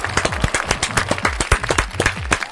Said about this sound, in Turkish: Pascal alkış. Alkış Pascal. Pascal alkış.